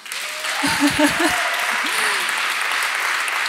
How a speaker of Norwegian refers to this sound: En stor applaus igjen til han.